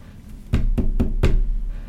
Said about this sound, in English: somebody came knocking.